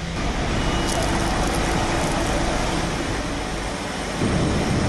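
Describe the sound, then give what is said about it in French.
A truck unloading potatoes at a potato chip factory, its load emptied into the factory, a loud, continuous rumbling clatter over a steady engine drone that shifts slightly in tone near the end, with no one speaking. “Donc là, on reçoit nos pommes de terre dans des camions. Ils sont vidés tranquillement vers l'usine.”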